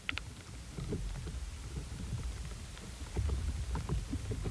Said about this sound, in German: Es rauscht, es gurgelt, es knackt. Manchmal hört es sich wie Popcorn an, dabei transportiert hier nur eine Waldkiefer gerade Wasser durch ihre Leitbündel, von den Wurzeln in die Blätter.